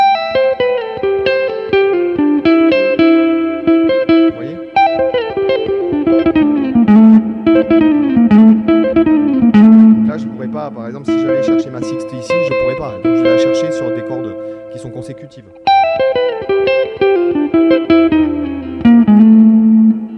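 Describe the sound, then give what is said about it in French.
An electric guitar plays a lick in sixths on two adjacent strings, two-note lines sliding downward in repeated phrases, with a busier passage in the middle before the descending figure returns. Moderately loud, with no talking. “Jeu en Sixtes : Enrichir son JEU à la Guitare Électrique”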